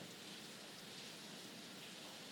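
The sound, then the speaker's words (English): Heavy rain pours down steadily, a dense, unbroken hiss of drops with no pauses, heard on its own at a fairly soft level. “As the rain poured down, she knocked on his door.”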